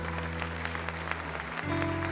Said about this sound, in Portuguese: Você pode ficar de pé. E você pode aplaudir ao Senhor e crer.